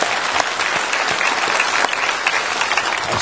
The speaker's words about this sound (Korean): 그리고 이 라스트 천 헌금을 비롯해서 35년간 지금의 이 여원교회가 있기까지 기도와 물질로 시간과 재능으로 허신하신 우리 모든 성도를 서로를 격려하며 축하 박수 드립시다.